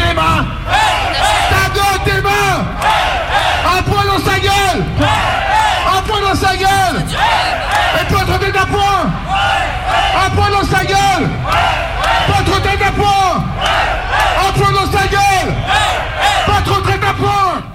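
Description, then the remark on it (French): A loud protest crowd chants and yells together in a steady, repeated rhythm, many voices shouting in unison with rising and falling cries, continuous throughout. “Malgré tout, petit à petit, l'ambiance s'échauffe.”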